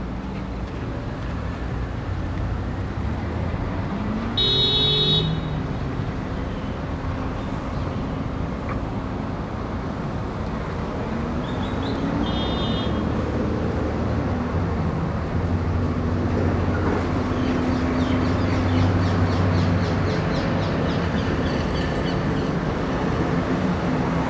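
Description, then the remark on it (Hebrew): Dense street traffic rumbles steadily throughout, a loud wash of engine and tire noise with cars passing by and a couple of brief high-pitched squeaks cutting through. “אה, אני כבר מדבר בעברית הזו, יחד עם כלי הרכב ותנועה כזאת.”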